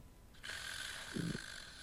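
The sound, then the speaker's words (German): A man's single long, raspy snore sets in abruptly and holds steady, with a brief deeper rumble partway through, with no talking. “Sobald ich den Mund loslasse, schnarcht er doch weiter.”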